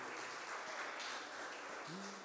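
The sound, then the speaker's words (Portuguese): A crowd claps for Jesus steadily in a dense, continuous wash of applause, fairly loud and sustained throughout, with a faint voice briefly rising underneath near the end. “Vamos aplaudir Jesus bem alto.”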